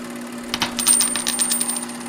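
A coin drops and clatters into a donation hat, a burst of bright metallic clinks and rattles that settle quickly, heard on its own over a steady low hum.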